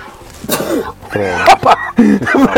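A sharp, explosive sneeze bursts out, followed by a couple more abrupt breathy vocal bursts mixed in with voiced sounds.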